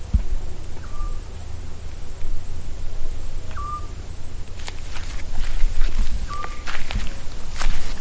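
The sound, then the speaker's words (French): A steady, dense chorus of crickets chirps throughout evening family dinners at an agritourism farm in Puglia, Italy, with a few short whistled calls and soft footsteps crunching. “les soirs autour de la bouffe italienne, les dîners en famille, cadencés par les grillons dans un authentique agritourisme.”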